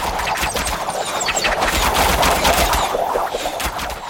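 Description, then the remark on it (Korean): A dense, continuous barrage of cannon fire, gunfire and booming blasts in a naval battle, as Joseon navy soldiers fire cannons at Japanese enemy ships, loud and chaotic, with rapid overlapping shots filling the whole stretch. No voices. “우리 군사는 적진의 한복판으로 뚫고 들어가서 화포를 쏘아 적선을 쳐부수고 화살을 쏘아서 적병을 사살했으며 외적 70여 명의 수급을 베었다.”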